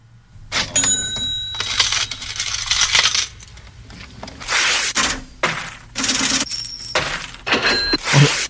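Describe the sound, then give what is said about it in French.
Metallic coins clatter and jingle alongside the ring and clack of a cash register, repeating in a steady looping rhythm of bright crashes with short pauses between them, forming the intro of a recent version of a song. “On va commencer par écouter la version récente de l'intro de …”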